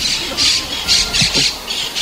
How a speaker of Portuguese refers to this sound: Ó, Até que enfim, se acordaram as caturritas para me darem bom dia.